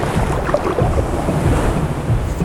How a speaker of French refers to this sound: L'océan.